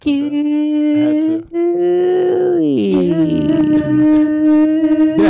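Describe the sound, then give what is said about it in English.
A voice mimics an air raid siren, holding a long, rising and falling wail with overlapping tones that create a delayed, layered effect, loud with brief breaks between swells. “did you hear the dewey dewey you do two of them, so it's like a delay, so it's like a real air siren.”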